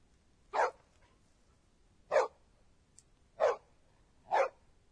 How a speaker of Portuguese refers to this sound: Ah, é um cachorro.